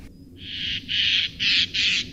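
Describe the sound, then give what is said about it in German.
In a winter forest, a Eurasian jay gives its alarm call, alerting the forest animals: four harsh, rasping screeches in quick succession, loud and noisy, over a faint low background rumble with no talking. “Prompt meldet sich ein Eichelheer, der die Waldbewohner alarmiert.”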